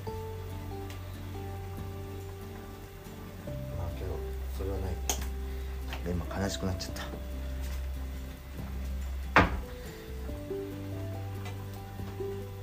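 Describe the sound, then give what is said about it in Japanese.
A pot of broccoli simmering in its boiling cooking liquid, with a soft, steady bubbling hiss running throughout while people talk over it. “そう今日はですねブロッコリーのえっと煮る汁煮汁をちょっと使って”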